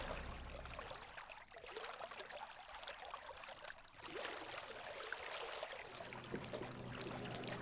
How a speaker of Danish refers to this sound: lige nu stikker vi stævnen ud af havnehullet, ud i Guldborgsund, og så drejer vi til styrbord